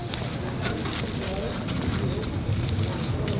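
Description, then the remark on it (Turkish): A steady, gentle outdoor wind rushes and rumbles against the microphone, a continuous soft roar with faint crackles and no pauses. “Şanslıyız ki rüzgarıyla dönmeyecek bugün. evet, şu an tatlı tatlı eşlik ediyor Ufaktan bize.”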